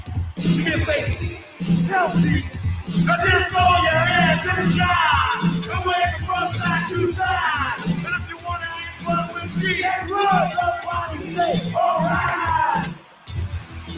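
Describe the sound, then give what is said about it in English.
A huge concert crowd at Live Aid in 1985 cheers and yells in a loud, sustained roar of many overlapping voices, easing off briefly twice before swelling back up. “You saw that crowd, man. So that was that was Live Aid, man.”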